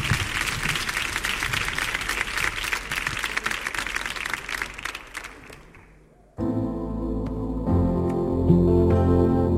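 Loud, dense audience applause with many hands clapping, fading out over several seconds, then giving way abruptly to music with steady tonal chords.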